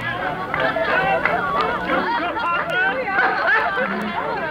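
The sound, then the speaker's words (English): A lively Christmas party crowd at old Fezziwig's counting house chatters at once, many overlapping voices blending into a steady, busy hubbub without any single speaker standing out. “My master, alive again and hosted one of his Christmas parties.”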